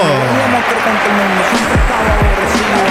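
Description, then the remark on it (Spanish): Steady, dense applause fills the whole clip, a constant crackling wash of clapping with several voices calling and chattering over it. “Ahí va, con aplausos y todo.”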